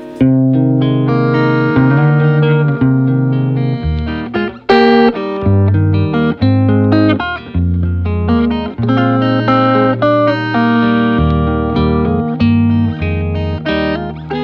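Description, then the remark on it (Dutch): An electric guitar with flatwound strings played through effects, with distorted, sustained notes and chords shifting every second or two at a steady, fairly loud level, briefly dipping once midway, with no talking. “echt, het is een ramp om op die flatbound te spelen.”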